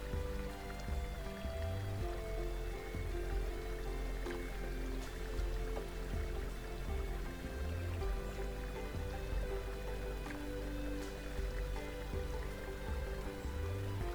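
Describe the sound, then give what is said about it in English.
Water rushes and splashes steadily over massive granite boulders beside a trail in a narrow slot canyon, a continuous churning of a creek whose rapids tumble into shallow pools where rocks block the flow, with no voices and no pauses throughout. “Rapids form and tumble down into shallow pools.”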